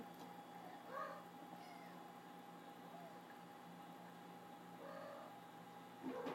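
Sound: domestic cats meowing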